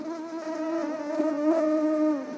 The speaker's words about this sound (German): Mehrere Käfige nebeneinander, umhüllt von Gasenetzen, zusammen so groß wie ein Klassenzimmer. Darin surren tausende Mücken, Gezüchtet hat sie der Genforscher Dr. Tony Nolan vom Imperial College in London.